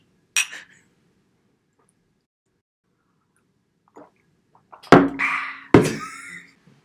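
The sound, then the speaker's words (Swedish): Glasses clink together in a toast: a light, bright clink early on, a pause, then two louder ringing clinks in quick succession that shimmer and fade. No one speaks. “Ska vi ta, ska vi ta skål?”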